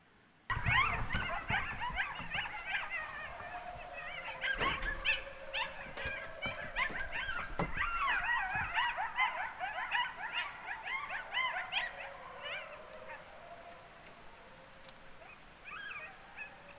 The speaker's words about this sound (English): I could hear out my window just coyotes going absolutely nuts. It, it actually kind of sounded a little something like this.